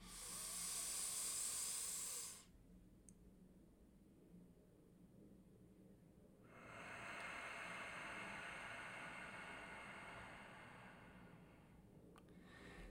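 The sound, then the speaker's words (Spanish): A slow breath drawn in through the nose with an airy hiss over a count of four seconds, a quiet hold of four seconds, then a long, softer nasal exhale over four seconds, as part of a breathing exercise. No talking. “Tomo cuatro inspiraciones, perdón, una inspiración contando 4 segundos, sostengo 4 segundos y expiro 4 segundos. Esto yo lo voy a hacer por nariz y nariz.”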